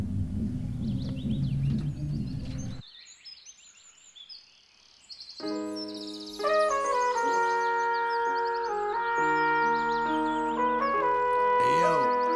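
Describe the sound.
A voice talks briefly, then after a short hush a song begins, its bright sustained notes swelling in and settling into a steady, fairly loud melody that plays on to the end.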